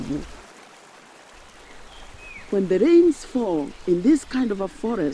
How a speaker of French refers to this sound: Lorsque la pluie tombe dans une forêt comme ici, Elle est captée par des millions de feuilles. Et chacune d'entre elles contient un peu d'eau. Si vous écoutez, vous pouvez entendre les gouttes d'eau tomber.